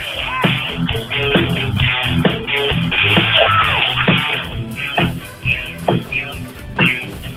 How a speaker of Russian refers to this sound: Похоже, же музыка живая началась. Вы слышите, да, сегодня пятница?